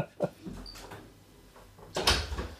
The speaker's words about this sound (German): Guck, jetzt kommt gerade in diesem Moment, macht unser Hund die Tür auf und kommt hier kurz rein. Ich muss mal kurz die Tür wieder zumachen.